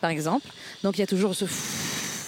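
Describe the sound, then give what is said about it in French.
A man speaks briefly in Paris, then a steady rushing noise from wind hitting the microphone takes over, continuing alone as a broad, even hiss with a low rumble underneath. “mais sinon, le bruit que pour moi, il y a deux bruits, c'est le bruit du vent.”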